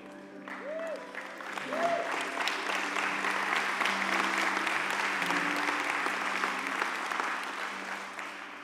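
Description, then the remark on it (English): Sustained applause from a crowd, a dense steady patter of many hands clapping for several seconds, rising quickly and tapering slightly at the end, with faint tonal sounds underneath. “Don't clap.”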